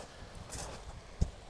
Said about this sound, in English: So we're back in the UK. We're in Littlehampton, and that sound you can hear is me walking along the beach.